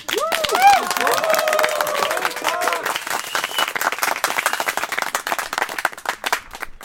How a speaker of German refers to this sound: Wann dürfen wir klatschen? Jetzt!